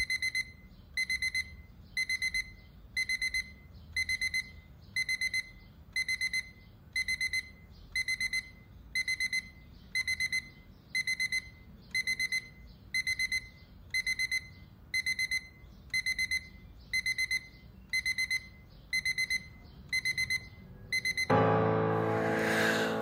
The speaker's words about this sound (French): Et moi, j'ai un souvenir très précis de ton réveil. que, je n'entendais pas. qui sonnait pendant des plombes.